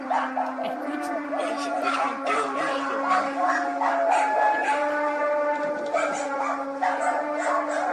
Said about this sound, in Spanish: Son los perros ladrando porque se desesperan, parece.